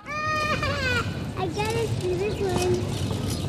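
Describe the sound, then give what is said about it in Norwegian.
Around ten children playing ball outdoors across the street, their high-pitched shouts and calls rising over a steady wash of background noise, lively, continuing throughout without pause. “På den andre siden av gata leker et titalls barn med ball.”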